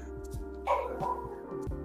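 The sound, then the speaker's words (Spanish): Dogs from the house across the street bark, a few scattered, muffled barks rising over a steady low background hum. “son los perros de la casa del frente, culiado.”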